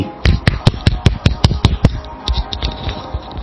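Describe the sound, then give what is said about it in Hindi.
One person, the host, claps for this contest's winner in a quick, steady rhythm, about nine sharp claps in under two seconds, before the sound thins into a few softer, scattered claps. No one speaks. “नीतीश के लिए जोरदार तालियां सबसे पहले मैंने बजाई”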